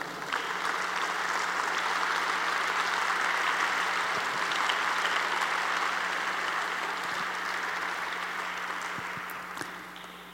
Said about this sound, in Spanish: Apláudele fuerte al Rey.